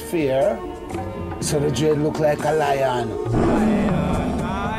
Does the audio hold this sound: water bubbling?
no